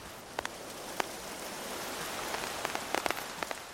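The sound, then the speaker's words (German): Steady rain hisses over a river and stones, also falling on black-coated paper, with scattered sharp drops tapping at irregular moments; no voices, just the soft continuous wash of rainfall. “Die ersten Tropfen. Der Regen fällt. Auf uns, den Fluss, die Steine und das geheimnisvolle schwarz beschichtete Papier.”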